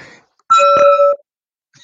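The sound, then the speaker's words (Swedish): A bright, sustained glassy ring with a second sharp tap partway through, like two glasses clinking together in a toast, fairly loud, then silence. “Jag ska skåla här tänkte jag.”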